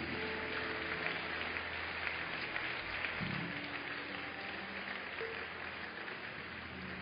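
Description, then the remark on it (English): A large crowd claps steadily to honor people as they leave, following counselors out, the sustained applause forming a dense, even wash of sound for several seconds with no clear pauses. “Please keep clapping until they go.”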